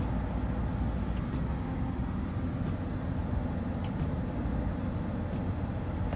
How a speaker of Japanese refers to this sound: 本日は車の中からお送りします